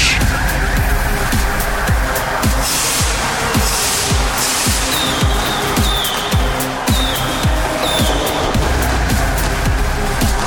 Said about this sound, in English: oh, hang on a minute, I can I can see a black limo pulling up into the arena in my monitors. But who's inside?